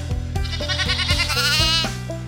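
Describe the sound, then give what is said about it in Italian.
Sheep bleat loudly, a wavering, quavering cry that rises and shifts over a couple of seconds, with overlapping calls and no talking. “La maggior parte delle pecore dorme circa 5 ore a notte.”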